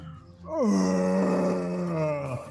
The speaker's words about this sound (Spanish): todos nada más escuchas un grito atronador que se confunde un poco con la lluvia.